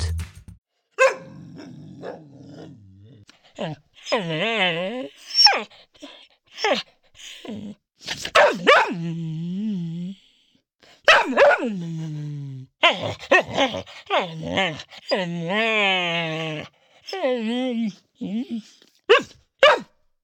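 A dog barks in short, repeated bursts mixed with drawn-out, groaning whines, fairly loud, with brief pauses between outbursts over about twenty seconds.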